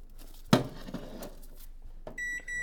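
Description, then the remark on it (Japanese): A microwave oven door thuds shut, followed by quiet clatter and then a steady electronic beep as the oven starts running, heating bean sprouts topped with minced meat at 600 watts for 5 minutes, with no one speaking. “今もやしとあとひき肉を上に乗せましたもやしはねちょっと余ってたもう根っこを取ったものがあったのででこれを電子レンジでえー、これ大丈夫なのかな5分加熱します”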